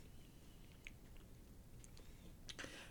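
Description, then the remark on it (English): A pet named Ahsoka chewing, with soft, irregular crunching and clicking bites over a low background hiss, growing a bit busier near the end; nobody speaks. “Well, now what we have Toby snoring and a cho- Ahsoka chewing.”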